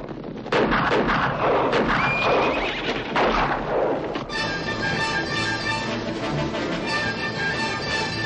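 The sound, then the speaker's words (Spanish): Outlaws' horses gallop off amid a loud burst of gunshots and whinnying for a few seconds as the outlaws flee, leaving some dead; then a sustained orchestral swell takes over. No one speaks. “Los forajidos huyen al galope dejando algunas bajas.”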